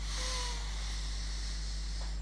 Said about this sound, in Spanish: pero vamos a inspirar como inspiran los bebés, hasta llenar la panza de aire, porque los bebés inspiran la vida plena.